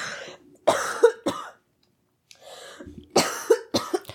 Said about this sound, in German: Moment, Moment, ich oh muss husten.